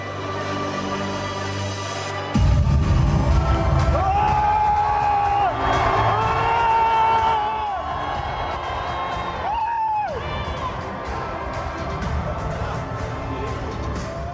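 A large crowd roars and cheers at a Marine Le Pen election rally in southern France during the French presidential election campaign, with drawn-out whoops and shouted calls rising above a dense, continuous wall of voices that swells in suddenly and stays loud throughout.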